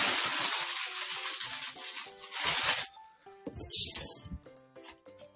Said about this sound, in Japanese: ピューラーさばきの音がすごい。あ、そんなに音するんや。